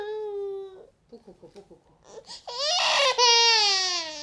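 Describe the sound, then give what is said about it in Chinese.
A toddler cries in a tantrum: a sustained wail, then a run of short, choppy sobs, breaking into a loud, high, strained scream of crying that holds to the end. “啊啊，妈妈在呢，你发脾气了是不是？”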